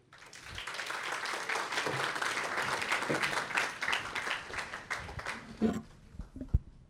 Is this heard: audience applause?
yes